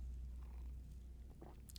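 A quiet sip of coffee: soft mouth and lip noises, then a brief slurp near the end, over a steady low background hum with no talking.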